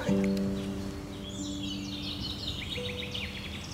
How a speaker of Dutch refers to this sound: Ja, maar dan is het niet stil. Dan horen mensen toch ook nog vogels?